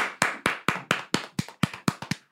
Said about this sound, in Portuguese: Palmas. Palmas.